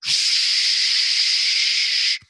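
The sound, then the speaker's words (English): A voice imitates water gushing from a frozen pipe after the heat was turned back on at a property, with one loud, steady hissing rush, held evenly for about two seconds, then cut off abruptly with a faint breathy tail. “that's the sound of gushing water for everyone listening.”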